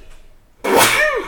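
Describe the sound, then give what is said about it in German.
A single loud sneeze bursts out suddenly after a brief quiet moment, with a sharp breathy onset and a quick trailing exhale. “Gesundheit.”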